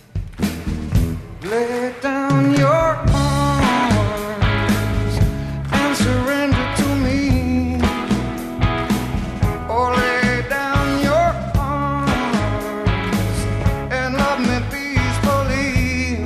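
Loud rock band music plays steadily throughout, with pounding drums, driving guitars and a sung melody filling the whole stretch without pause.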